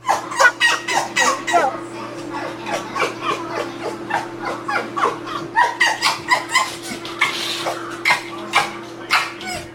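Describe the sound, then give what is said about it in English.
A fox whines at a closed door in a rapid, unbroken string of high, squeaky yelps and whimpers, fairly loud, with a faint steady hum underneath and no one talking. “That was a fox whining at a closed door.”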